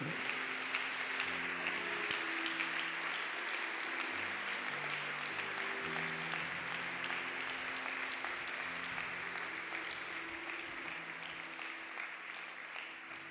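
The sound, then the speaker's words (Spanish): A church audience applauds God loudly and steadily for over ten seconds, a dense wash of clapping with faint musical tones underneath that tapers slightly toward the end. “Apláudale fuerte a Él, por favor.”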